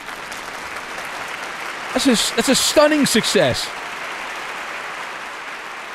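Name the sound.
applause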